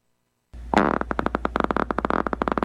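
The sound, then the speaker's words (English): A person breaking wind in a long, loud, sputtering burst that starts after a brief silence and flutters rapidly in a rhythmic series of pulses until the end, unaccompanied. “Yeah, it's somebody breaking wind on that one.”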